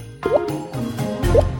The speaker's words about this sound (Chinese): 哎，来来来来来来滴个水滴，好像不错哦。 于是，安德烈海姆在实验室里的最强的磁场当中开始滴水，神奇的事情就发生了。